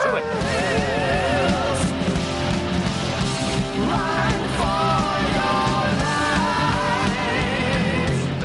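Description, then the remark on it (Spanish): A loud, high-pitched falsetto voice yells in heavy metal style, with wavering vibrato and sustained wails across the whole stretch, riding over a dense, driving band. “Falsetito bueno, pantalón bien apretado, que por eso viene el falsete, y a, gozar ahí con la melena al viento.”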